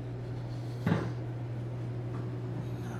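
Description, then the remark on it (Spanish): The metal door at the bottom of a vending machine bangs once, sharp, as someone works it to show its sound, over a steady low mechanical hum, followed a moment later by a faint softer knock. No one speaks. “El resorte gira y el producto que la gente ha comprado cae a una bandeja metálica y la puerta metálica es más. Me estoy acercando para hacerla sonar para demostrarlo.”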